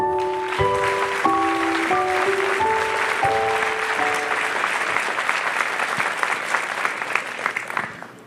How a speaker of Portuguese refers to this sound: Merece um aplauso ou não?